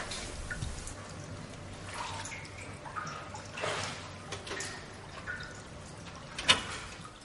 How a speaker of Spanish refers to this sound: Irene se sienta al borde de la piscina. Introduce la mano en el agua y moja un poco su pierna y su cuello.